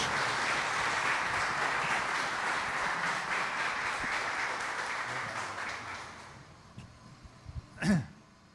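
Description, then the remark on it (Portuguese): An audience applauds to welcome a returning guest in a steady, dense wash of clapping for about six seconds, then it thins and fades out, followed by a short vocal sound at the end. “Então eu gostaria muito que vocês aplaudissem o nosso querido irmão”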